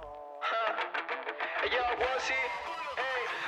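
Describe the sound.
A recorded song kicks in after a brief lead-in, with a singing voice carried over full, steady band accompaniment at a loud, close level.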